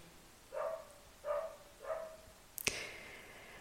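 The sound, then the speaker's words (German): A dog barks three times at a steady pace, somewhat muffled, heard in an apartment with thin walls, followed by a single sharp knock or thud. No one speaks. “Aber irgendwie hat dieser Hund scheinbar irgendwas gegen mich. Immer wenn ich anfange zu reden und es ist sehr hellhörig hier”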